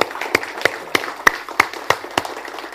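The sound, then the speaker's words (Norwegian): Evenly spaced claps ring out about three times a second over a faint noisy crowd background, like an audience clapping together in a steady rhythm, applauding the people who put in the work at a packed event. “går det ikke an å klappe en gang til for de som må gjøre en innsats her.”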